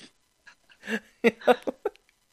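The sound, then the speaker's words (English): A small dog gives a quick run of four or five sharp, high yaps, bunched into about a second, after a few softer breathy noises. “Pac just um, went just went bow”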